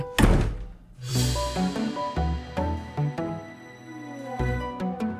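A door slams shut with one loud thud right at the start, followed by a short melodic piece of music playing steadily through the rest.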